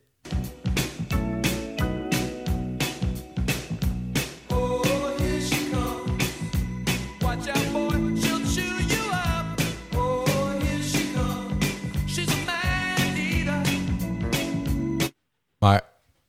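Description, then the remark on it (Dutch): The original recording of a pop song plays loudly and continuously, with a steady driving beat, bass line and melodic vocals over full instrumentation, cutting off abruptly near the end. “nou goed, dan is dit het origineel.”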